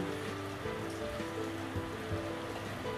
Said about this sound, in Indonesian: nah kalian dengar suara rintik-rintik hujan di luar sana